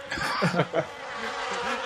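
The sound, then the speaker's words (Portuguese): A voice imitates the sound of the Earth's core, a thin, whining buzz like a mosquito, steady for about two seconds, with a few brief voiced wobbles near the start. “Não é pernilongo?”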